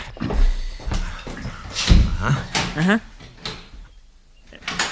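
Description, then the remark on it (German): An office door closes with a solid knock, followed by clicking and rattling as it is locked, while voices talk over and around the sounds. “Wieso, wieso schließen Sie denn die Tür ab?”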